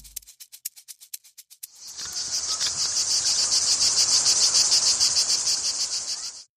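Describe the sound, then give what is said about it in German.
Cicadas chirping: a quick series of about a dozen dry ticks, then a loud, continuous high-pitched buzz that holds steady for several seconds before cutting off abruptly. No voices. “Am Ende dieser Folge von Nerds mit Auftrag, dem Wissenschaftspodcast von Upper Science, kommen wir noch einmal zurück zum Anfang, zurück zu den Zikaden.”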